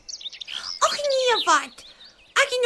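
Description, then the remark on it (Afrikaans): A voice imitates a hen's cackle with a few short, choppy, rising and falling squawks in quick bursts, fairly loud, with brief pauses between them. “Maar hulle dogter kykel net en sê”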